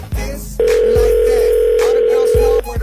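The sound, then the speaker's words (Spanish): A phone call rings out with one long, steady, mid-pitched ringback tone lasting about two seconds, loud and unbroken, framed by a few soft low thumps at the start and end. “Contesta, por favor, por favor.”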